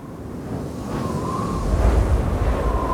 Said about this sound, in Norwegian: Når vi våkner om morgenen og kommer ut, så er det veldig kraftig vind.